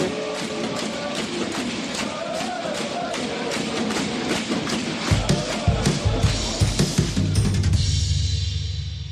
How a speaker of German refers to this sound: Natürlich nur echt mit den Klatschpappen hinten raus.